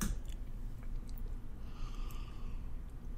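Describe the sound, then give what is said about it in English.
Quiet mouth sounds of someone sipping a cloudy, amber-colored barley wine beer from a glass, with soft slurping and swallowing noises and no talking. “Let's uh, let's give it a sip.”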